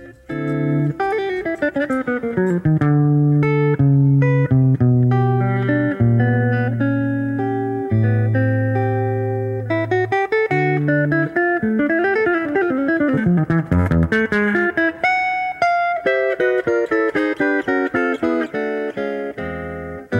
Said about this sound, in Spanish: un hombre que, confortable en el swing, adquirió también todo el lenguaje del bebop en una manera virtuosa de tocar la guitarra, eh, tanto en acordes como en pasajes rápidos.